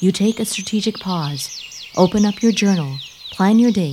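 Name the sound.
birds chirping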